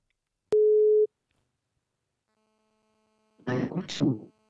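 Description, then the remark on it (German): A telephone ringing tone during an outgoing call to a guest: one short, steady electronic beep starting with a click, then silence, then a brief burst of a voice speaking. “Ich weiß nicht, ob ich den jetzt noch anrufen kann, aber was weiß, können wir einfach mal probieren.”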